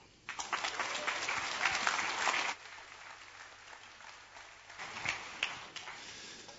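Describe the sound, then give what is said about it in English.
An audience at a morning church service claps in a dense, steady burst of applause and cheering for a couple of seconds, then it drops to a softer scattered patter before swelling briefly again and trailing off. “Why do we have this time together of remembering what God has done and, and talking about it and clapping and cheering?”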